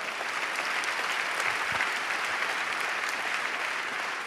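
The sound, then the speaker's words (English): A church audience claps hands loudly to show they believe Jesus saves his people from their sins, a dense, steady burst of applause, many overlapping claps forming a loud, even wash of sound with no talking throughout. “Everybody who believes in that, clap your hands loud.”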